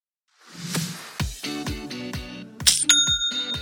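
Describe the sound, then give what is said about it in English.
A Shopify sale notification chime signalling a new sale on an e-commerce store: a quick run of bright, bell-like metallic pings that ends in a high, sustained ring, clear with no talking. “That's the sound of another sale, another dollar, another customer on your Shopify e commerce store.”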